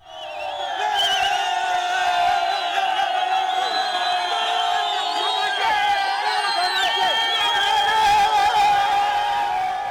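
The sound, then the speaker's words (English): A large rioting crowd in Harare cheers and shouts continuously at a man running back through it, a dense, loud wall of overlapping voices with whoops and yells rising above it, sustained for the whole stretch without pause. “So that's basically the sound of everybody cheering me, which was the weirdest thing.”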